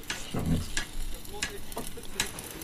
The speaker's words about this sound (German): Das, das war das Schweißgerät.